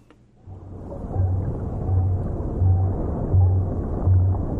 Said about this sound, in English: I sent you a sound that's that's something like a, a it's a blue whale